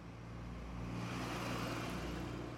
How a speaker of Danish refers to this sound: Geo tæller bilerne, der kører forbi ham, mens han går hjem.